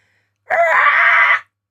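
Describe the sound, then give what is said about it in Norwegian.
A person screams: one loud, harsh, drawn-out screech lasting about a second, rough and strained like a dinosaur's cry, cutting off abruptly with silence on either side. “Som høres ut som en, sånn, eh, en slags dinosaur.”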